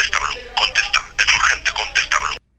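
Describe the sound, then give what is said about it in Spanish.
A cell phone ringtone plays, a tinny recorded voice chanting 'Santo llamando a Blue Demon' in quick repeated bursts before cutting off abruptly. “¿Es su ringtone? Sí, es mi ringtone.”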